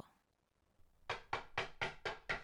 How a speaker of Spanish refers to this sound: Y duró solo diez minutos, porque a los diez minutos llamaron a la puerta insistentemente.